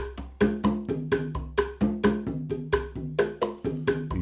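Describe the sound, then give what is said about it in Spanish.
Rumba columbia percussion: hand drums in a steady, syncopated pattern of sharp, ringing strikes at different pitches, loud, with no voices. “Por ejemplo, columbia, suena así.”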